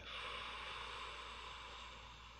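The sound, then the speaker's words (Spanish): A long, deep exhale of breath after filling the lungs during a guided relaxation breathing exercise, a steady airy rush that fades gently over a couple of seconds, with no talking. “Inflama todos tus pulmones y luego suelta tu aire.”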